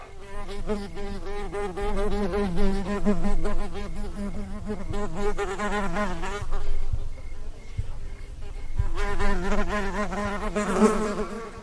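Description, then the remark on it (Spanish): A housefly buzzes in steady flight, its droning hum wavering in pitch as it circles, loud and continuous with no voices present. “Un zumbido en una vasta noche. Las moscas.”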